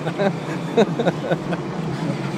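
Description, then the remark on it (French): An old metro train, running on old technology, rumbles steadily with a constant loud mechanical roar, while faint voices murmur underneath. “C'est vrai qu'il fait beaucoup de bruit le métro ici.”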